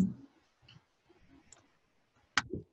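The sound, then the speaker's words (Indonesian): A computer mouse clicks once, sharp, near the end, clicking install for Open Journal System, after a couple of fainter ticks earlier on. There is no talking, only a low, quiet hum. “Jika sudah dipastikan terisi, kita bisa klik install Open Journal System.”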